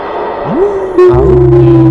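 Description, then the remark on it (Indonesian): A wolf howl sound effect rises in pitch and then holds a long, steady note, joined halfway through by a deep rumbling drone. No one speaks. “Tiba-tiba ada serigala”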